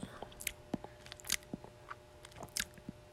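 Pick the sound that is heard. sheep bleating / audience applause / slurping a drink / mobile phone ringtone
slurping a drink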